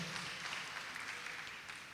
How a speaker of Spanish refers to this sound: Dele un aplauso al Señor, por favor, en esta noche.